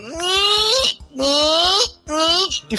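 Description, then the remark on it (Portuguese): A voice imitates the squeak of a man rubbing a window's glass: three loud, drawn-out squeals, each rising slightly in pitch, separated by brief pauses. “Só que quando ele esfrega a janela, daquele barulho bem.”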